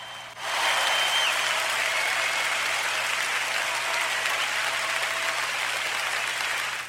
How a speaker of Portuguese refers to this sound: Cara, palmas, palmas, parabéns, velho. Foi muito bom isso. Sério mesmo. Excelente.